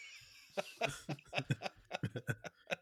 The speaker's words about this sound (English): Uh, dry cough.